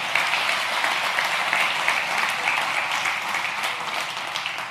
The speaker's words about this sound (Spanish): Dale un aplauso bien fuerte a Dios.